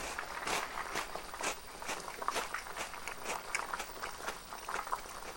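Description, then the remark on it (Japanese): Someone chewing Ritz crackers while waiting for pasta to boil: a steady, irregular run of crisp, brittle crunches, fairly soft throughout, with no talking over them. “リッツクラッカーっていい音するよね”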